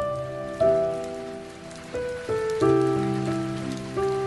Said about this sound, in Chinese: 今天的北京一直在下雨，我从爸爸车后座的窗户一直看到十二楼阳台的玻璃，淅淅沥沥